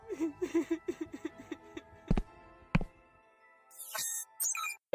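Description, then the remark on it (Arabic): A run of short, rhythmic sobbing bursts from a single voice in a living room, followed by two heavy thuds and some bright tinkling sounds. “توجه كنان لغرفته وحين وصلها سمع صوت بكاء من الصاله”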